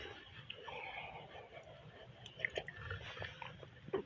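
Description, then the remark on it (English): Someone quietly sips coffee at six o'clock in the morning: soft slurping and swallowing with a few small wet mouth clicks, over a faint background hiss, with no talking. “Let me grab a cup of a sip of my coffee.”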